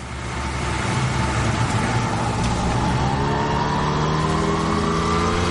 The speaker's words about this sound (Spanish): Circulan en moto por un túnel y avanzan por un camino de tierra.